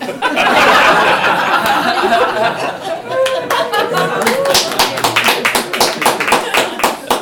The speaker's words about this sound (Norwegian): Med den applausen tar vi en pause.